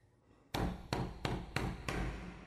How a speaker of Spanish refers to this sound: ¿Quién llama a mi puerta?